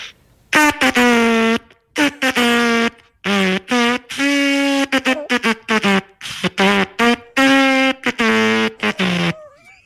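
Halting, improvised trumpet playing by a person asked to play on the spot early in the day: a string of loud, buzzy brass blasts of uneven length, separated by short breaths, with the pitch wobbling and sliding between notes.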